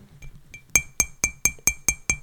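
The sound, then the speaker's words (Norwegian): A glass is tapped with a utensil to call for a speech: a few soft taps, then about eight evenly spaced, bright ringing clinks, fairly loud, with no talking. “Jeg klarer ikke å slå her nå i koppen min.”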